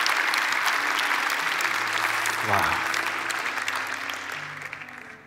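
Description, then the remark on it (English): Sustained applause from a large audience clapping for a couple, dense and steady, with a brief low rumble partway through before the clapping gradually tapers off. “Would you put your hands together for David and Vicky Rice?”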